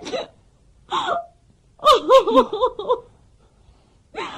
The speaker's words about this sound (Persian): داری گریه میکنی